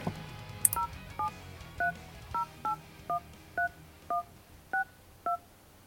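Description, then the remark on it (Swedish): A phone number is keyed in to make a call: about ten or eleven short touch-tone beeps in a steady, slightly uneven sequence, clear, with no voices and only a faint background hiss. “Men nu ringer vi.”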